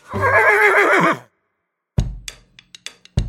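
A horse gives one loud, quavering whinny lasting about a second, followed after a pause by a few sharp snorts and thumps.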